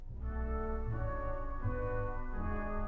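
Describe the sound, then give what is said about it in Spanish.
An orchestra plays Saturn, a slow movement from an English composer's seven-movement suite named after the planets, composed 1914–1916: long, sustained chords held at a steady, moderate volume, with the harmony shifting gently a couple of times and no voices. “y ahora suena Saturno.”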